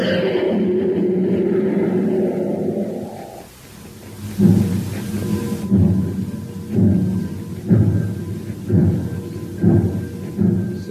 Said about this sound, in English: Hey, do you hear that, Space Patrollers? That's the Terra City Express train. It's trying to get up speed on ordinary fuel. Not very speedy, was it?